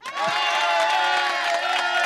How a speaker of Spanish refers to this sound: Ponle aplausos al partido, ¿no? Aplausos al partido.